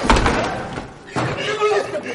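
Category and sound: household object, front door slamming shut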